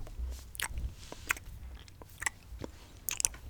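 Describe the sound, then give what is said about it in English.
Chewing a soft mouthful of dauphinois potato speared with a fork, with wet, crunchy bites repeating in an irregular rhythm and a low rumble underneath. No one speaks. “You spear one with your fork and pop it into your mouth and chew.”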